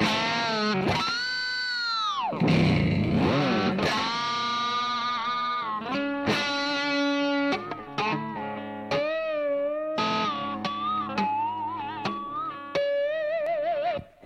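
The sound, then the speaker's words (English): Distorted electric guitar playing a run of quick tapped and hammered-on notes, with swooping pitch bends early on, then ringing melodic phrases that rise and fall steadily, loud and without any talking. “You know, you get a lot of like the tapping, hammer on.”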